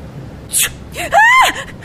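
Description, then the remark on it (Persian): A sharp intake of breath, then a woman lets out a short, loud, high-pitched scream lasting under half a second before trailing off. “بله خوبم بچه جیغ زدین خانم”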